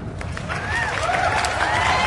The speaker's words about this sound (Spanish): Aplausos, chingada madre.